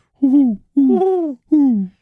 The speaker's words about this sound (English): that also kind of lines up with barn owls. Barn owls, barn owls, barn owls, barn owls.